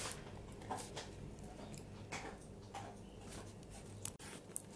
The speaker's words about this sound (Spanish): Si escuchan el ruido es mi perra tomando un poquito de agua y acto seguido comiendo unos doggies.